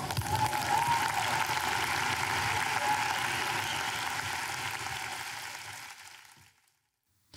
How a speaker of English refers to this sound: Give them a round of applause.